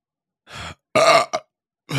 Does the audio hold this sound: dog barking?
no